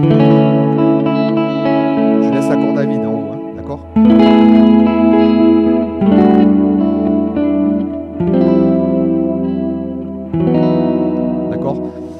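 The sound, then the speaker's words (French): Electric guitar chords ring out, an E sus2 (Mi sus 2) played as a barre shape against an open string, with sustained, effected tone; several chord changes follow one another roughly every two seconds, loud and continuous. “Et en fait, vous voyez, là, en fait, je fais un barré, là, ici, et... et je laisse la corde à vide.”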